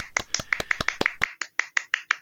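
Applause from what sounds like a single pair of hands: about a dozen sharp, crisp claps in a quick, steady rhythm, with no talking over them.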